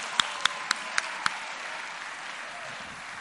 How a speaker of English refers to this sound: give these guys a round of applause, would you? Come on, give it to them.